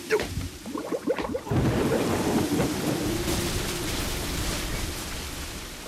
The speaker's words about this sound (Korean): 그렇게 뱃사람이 되어 동생을 찾아 이곳저곳을 떠돈지 10년쯤 지났을 때 그는 바다에서 폭풍우를 만나 파선을 당하게 되죠.